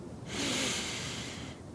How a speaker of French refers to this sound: Prenez une profonde inspiration,